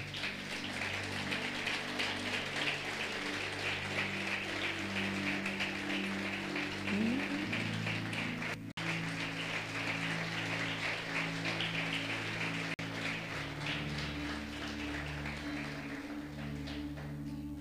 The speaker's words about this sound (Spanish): Qué maravilloso. un aplauso grande a Cristo.